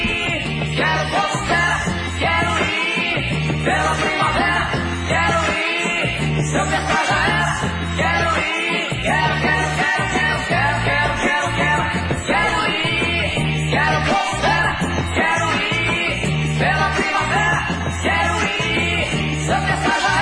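A loud rock song plays steadily on the Cultura UFES radio program, with driving drums, heavy bass and dense guitars, plus what sounds like energetic shouted vocals in the mix.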